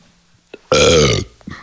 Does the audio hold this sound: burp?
yes